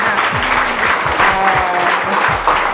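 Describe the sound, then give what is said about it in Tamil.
A crowd at an International Women's Day celebration claps steadily to honor a woman guest, a dense patter of many hands at a fairly loud, even level for the whole stretch, with no voices breaking through. “மேடத்தை கௌரவப்படுத்துகிற time இது நமக்கு எல்லாருக்கும் பெரிய ஒரு கிடைச்ச ஒரு நல்ல ஒரு வாய்ப்பு அதுக்கு பலத்த கரகோஷமாக ஒரு கைத்தட்டம் மேடத்துக்கு”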